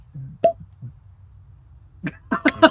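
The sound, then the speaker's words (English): Hollow, wet popping sounds like a finger pulled out of a mouth: one clear pop early on, a pause, then a quick cluster of several pops, with no talking. “No, pulling your finger out just before you stick it in.”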